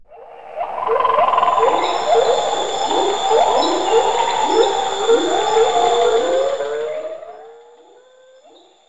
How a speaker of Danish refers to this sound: Med andre ord, forestil dig en regnskov. For at hjælpe din fantasi lidt på vej, så er her det, vi kalder for en lykulisse.